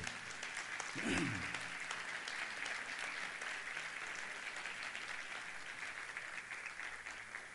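An audience breaks into steady, dense applause for the Lord, many hands clapping at once in a continuous wash that holds level throughout, with a brief low swell near the start.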